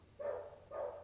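A dog barks twice in quick succession, each bark drawn out and tonal, somewhat muffled as if from a distance, with no talking over it.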